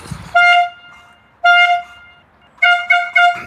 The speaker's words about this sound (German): gleich kommt Rüdiger um Punkt 13 Uhr mit der Tröte. Dann muss er auf die Terrasse und dann muss er einmal richtig tröten.